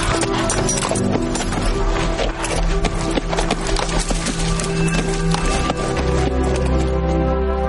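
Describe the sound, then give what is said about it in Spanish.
A slender black horse trots elegantly and steadily, its hooves clip-clopping in a quick, even rhythm of sharp knocks that continues loudly throughout, over a low sustained tonal hum in the background. “El esbelto caballo negro trota con elegancia,”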